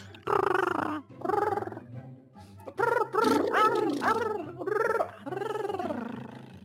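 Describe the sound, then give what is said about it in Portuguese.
A voice imitates a chicken inside the throat with throaty, gurgling clucks in several bursts, loud, with warbling rising-and-falling tones and brief pauses between. “Nossa, parece que você tava imitando Tá imitando um frango dentro da garganta.”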